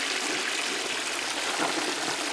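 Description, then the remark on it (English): A toilet flushes with a steady rush of water, a loud gushing sound that holds constant throughout without any voices. “This gets the flush.”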